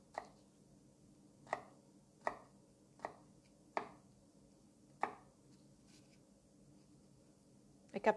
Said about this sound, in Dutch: Idealiter snij je de knoflook eerst en dan zet je dan pas het vuur aan.